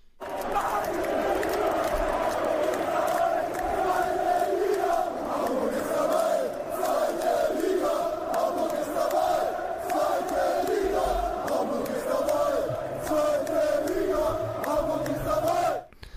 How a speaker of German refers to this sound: Und wir haben nochmal so einen kurzen Ausschnitt hier vorbereitet aus der Fankurve in Hamburg, wie es dann bei den, bei den Hertha-Fans klang. Natürlich auch ein bisschen Schadenfreude dabei.